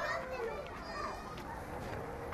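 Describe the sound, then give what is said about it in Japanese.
Children playing at a playground at Asukayama with a very large castle-shaped slide, other slides and swings, on a warm sunny day: a steady, busy wash of overlapping kids' voices, chatter and occasional higher shouts, continuing throughout without pause. “真ん中にはお城型の滑り台があってしかもそのお城型の滑り台もねものすごく大きいんですよ上にね子供がもう何十人乗っても大丈夫なぐらいの広さを持っててねみんなそれを滑り台四方八方に降りていってその先にある滑り台に遊びに行ったりブランコ乗ったりって本当に思い思い運転で遊んでる”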